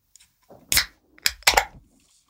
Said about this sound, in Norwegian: Og hørte det var sånn deilig brus som det bruker å være av sånn øl og sånn på reklame. Ja, øl. Jeg vet ikke helt om det er noe jeg forbinder med digg brusing, men